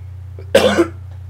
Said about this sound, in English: Pardon me, y'all. I had to cough. I had to put y'all on mute for a second.